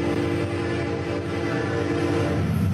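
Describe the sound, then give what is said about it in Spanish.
A train rumbles steadily with a sustained horn-like tone droning over it, the sound broad and constant, as if a locomotive is approaching in the distance, with no voices present; heard in Monterrey, Mexico, while no train can be seen. “Terror por el tren fantasma que asusta en Monterrey”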